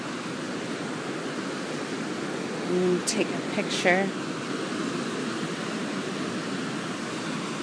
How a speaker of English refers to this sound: But I just wanted to see the rush of this river.